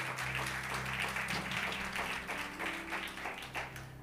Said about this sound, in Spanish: Dale fuerte el aplauso a Dios si le gustó esto.